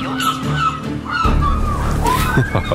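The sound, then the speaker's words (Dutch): Water sloshing and lapping in a steady, fairly loud wash, mixed with a low rumble and faint tonal sounds, as if aboard a boat. “We zitten op een boot deze middag in Weet ik Veel.”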